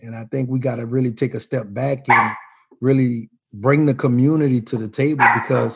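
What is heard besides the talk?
dog barking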